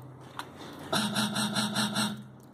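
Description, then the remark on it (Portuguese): A sampled breath of an MC looped into a quick rhythmic pattern for a beat, about seven rasping in-and-out pulses at a steady beat, fairly loud with no talking over it. “Samplei a respiração.”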